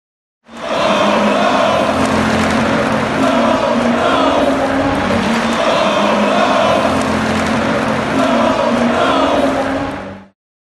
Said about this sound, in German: Und ich weiß nicht, ob du es gehört hast, nach dem Pokal aus gegen Hamburg kamen äh, Sprechchöre aus der Nordkurve, die äh, ich spiele es mal ab, ich habe es nämlich damals mit dem Handy aufgezeichnet, folgendes skandiert haben.